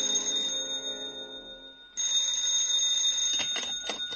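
telephone bell ringing

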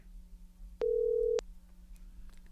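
telephone call ringing

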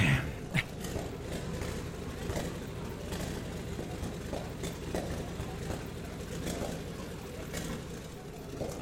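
car engine idling

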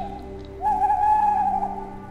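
owl hooting

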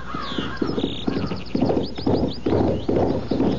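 horse galloping hoofbeats

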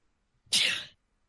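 sneeze

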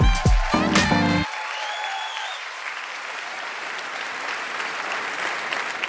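audience applause and cheering

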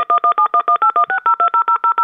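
telephone keypad dialing tones

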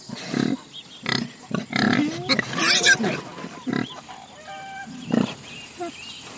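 piglets grunting

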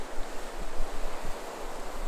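ocean waves breaking

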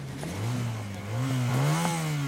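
motorcycle engine revving past

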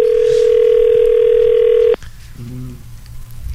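landline telephone dial tone

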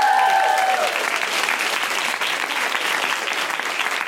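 audience applause

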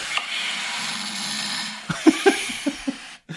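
snoring

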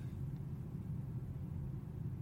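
car driving

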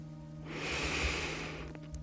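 slow deep inhale

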